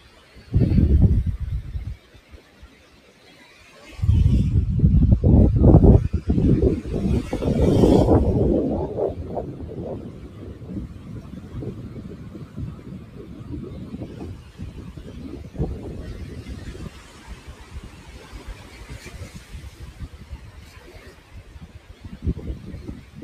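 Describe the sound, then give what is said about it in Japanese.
Gusty wind buffets the microphone at the seaside near Enoshima, Japan, while waves wash in with loud surging rushes, easing into a steadier, softer roar toward the end. No one speaks. “あ、葉山じゃないんですけど、江ノ島の近くまで来てまして、波音聞こえてるかな”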